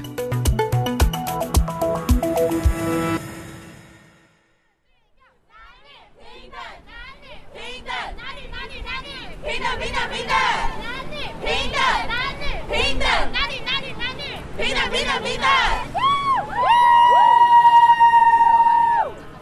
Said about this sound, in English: That is the sound of demonstrators joining in an event that organizers dubbed the Women's March Taiwan, wherein nearly 100 marchers holding red balloons and donning that iconic knit uh, pussy hats.